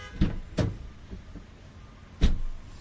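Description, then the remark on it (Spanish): Someone gets into a car: two dull thumps and a few softer knocks and rustles, then a loud, solid door slam near the end. No one speaks. “Óigalo, óigalo, ahí se va a montar al carro.”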